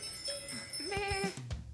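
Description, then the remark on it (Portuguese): A bell rings as a weekly segment jingle, with a sustained, shimmering high tone, while a short bleating animal call wavers through the middle of it. The whole jingle lasts under two seconds, with no voices. “É o badal da semana, então.”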